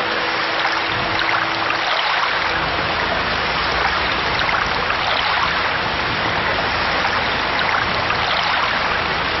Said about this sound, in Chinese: 又下雨了，就是这天气烦人。哎哎，你们快到船舱里头休息啊，躲躲雨啊。